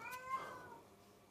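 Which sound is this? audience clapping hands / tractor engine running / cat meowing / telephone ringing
cat meowing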